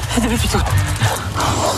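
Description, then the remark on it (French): A dog barks and yips a few times, mixed in with people talking over steady background noise. “Je sais pas, il me fait peur lui aussi là Vous êtes maître chien, vous avez peur des chiens”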